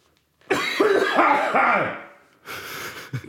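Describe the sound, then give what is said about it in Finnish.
A loud fit of hacking coughs, several harsh rasping bursts in quick succession lasting about a second and a half, then after a brief pause a shorter, rougher cough trails off. “se yskittää”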